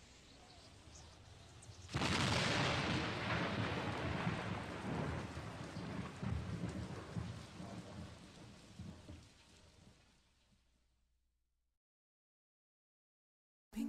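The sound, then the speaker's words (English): Steady rain hisses, then a sudden loud thunderclap breaks in and rolls on as a long, rumbling peal before the storm fades away to silence. “I said, uh, sure looks like it's gonna rain.”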